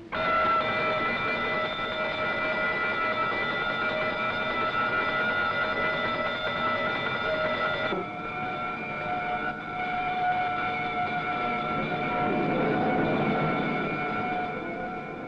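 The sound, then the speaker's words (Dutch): A warship's alarm bells ring loudly and without pause as the position of enemy tanks is plotted on the map, a shrill, steady metallic clangour that briefly dips midway, then carries on with a low rumble beneath it. No one speaks. “Terwijl de positie van de tanks op de kaart wordt uitgezet, rinkelen de alarmschellen.”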